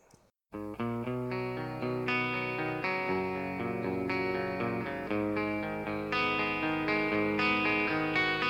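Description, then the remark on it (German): Rock music played on the radio station Radiofabrik begins after a brief quiet moment: loud, steady guitar chords with a thick, effects-laden tone ring out in a slow, even progression, with no voices. “Und jetzt hören wir noch Musik.”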